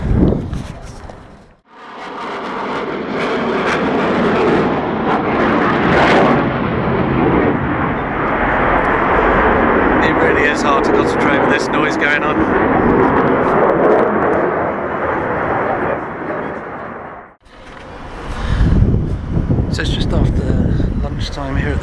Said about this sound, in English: That's the A330 Neo just coming into land over the Flight Global Chalet.